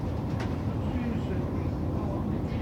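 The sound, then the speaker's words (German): A steady, continuous engine roar rumbles throughout, fairly loud and unbroken, from a small airplane coming in to land. “So, die nächste kommt rein. Ist jetzt auch eine kleinere Maschine, kann man gerade so noch als Flugzeug anerkennen sieht man auch gar nicht.”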